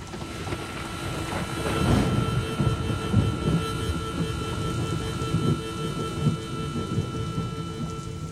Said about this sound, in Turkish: Yağmur iyice şiddetlenmişti. Camı dövüyor, tıpırtısı koyulaşan sessizliğin içinde giderek daha çok duyuluyordu.